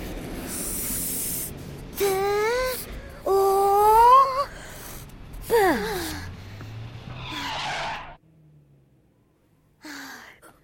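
Cars brake hard to a stop as all traffic halts, with a series of loud, wavering tire squeals and hissing skids, one after another, before the noise cuts off into near silence and a final brief screech.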